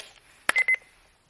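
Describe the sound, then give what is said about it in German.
A sharp click followed by two short electronic beeps in quick succession from a talking alarm clock as its alarm is set for 6:30, clear, with no talking. “Der Wecker wird um 6 Uhr 30 klingeln.”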